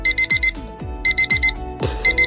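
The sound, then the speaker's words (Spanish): An electronic alarm clock beeps loudly in quick bursts of four or five high-pitched tones, repeating over deep thumping bass hits with no talking. “¿En qué has pensado esta mañana cuando te ha sonado el despertador?”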